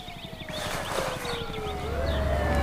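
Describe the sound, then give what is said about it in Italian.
Emergency sirens wail in the distance, their long gliding tones rising and falling steadily over a low rhythmic rumble of a helicopter circling overhead. “Un elicottero volteggia sopra la sua testa e si sentono sirene in lontananza.”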